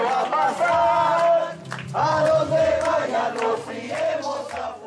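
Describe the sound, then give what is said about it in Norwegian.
A crowd of protesters at an action by the group Fona on the outskirts of Santiago, Chile, shouts slogans in loud unison, voices rising and falling in rhythmic chanted phrases with short pauses between lines, the group's cry sustained and forceful throughout. “Hvis vi ikke får rettferdighet, handler vi selv, roper deltakerne i denne aksjonen i utkanten av Chiles hovedstad Santiago.”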